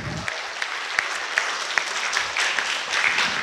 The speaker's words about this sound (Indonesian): Terima kasih. Tepuk tangan dong nih buat teman kita.